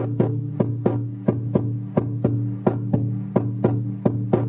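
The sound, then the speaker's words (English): Steady, quick drumming on a plastic water bottle, each tap landing in an even rhythm over a deep, resonant low drone that rings between strikes. Moderately loud, with no voices. “if you closed your eyes and you didn't see this water bottle, I think you wouldn't believe this is actually coming from a plastic bottle because it's got a deep, nice sound.”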